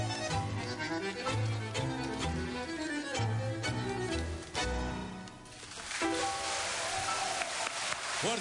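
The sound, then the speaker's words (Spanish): The band plays a tango live with strong rhythmic accents at a 20th-anniversary birthday party, then the music ends and the audience bursts into sustained, fairly loud applause for the final few seconds. “Fuerte el aplauso para los maestros.”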